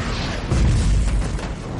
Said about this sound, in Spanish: Una flecha lo atraviesa y estalla.